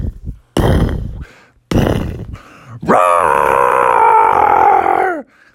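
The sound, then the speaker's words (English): A person growls and grunts in short bursts, then lets out a long, sustained, loud roaring howl, imitating a Tyrannosaurus rex's roar. “A family of three, tri- three Tyrannosaurus rexes came out of the jungle.”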